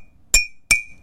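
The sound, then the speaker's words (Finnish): Two taps on a mug of hot milk, evenly spaced, each a fairly loud clink with a short, dull ring that fades quickly, unlike a mug of cold milk, which keeps ringing. No one speaks. “No, se on tommonen tylsä.”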